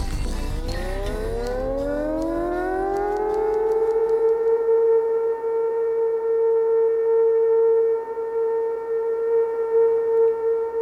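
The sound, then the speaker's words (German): A civil defense siren sounds the first warning signal, winding up from a low growl to a loud, steady wail that holds its pitch for several seconds, with strong harmonics and no voices. “Hören Sie nun das erste Sirenensignal zur Warnung.”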